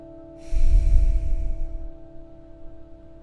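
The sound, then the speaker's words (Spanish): A single deep breath, drawn in and let out in one long airy rush, fading over about a second and a half above a faint steady background hum; taken by a person sitting with a straight back in the mountain posture. “Hago una respiración en la postura de montaña.”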